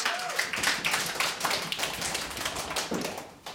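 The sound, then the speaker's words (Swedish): An audience at a live Radio Total Normal broadcast from the Fountain House kitchen, Götgatsbacken 38, applauds steadily for a few seconds, a dense crackle of many hands clapping at once with no voices over it, holding a fairly even loudness throughout. “Kan vi få lite bifall här så, vi, så ni hörs?”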